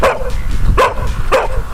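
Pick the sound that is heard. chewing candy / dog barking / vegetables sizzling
dog barking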